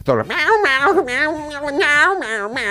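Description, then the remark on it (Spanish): A dog lets out loud whining cries and yelping barks, drawn-out and wavering in pitch, repeating almost continuously without a pause. “yo al rubio le voy a poner un, no sé, un embozo, no sé, le tengo que tapar la boca. como un megáfono.”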